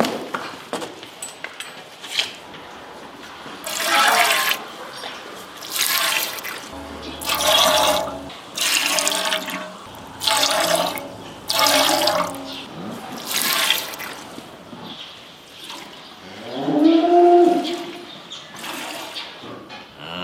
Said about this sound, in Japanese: 今朝は乳搾りのいい音それではお聞きください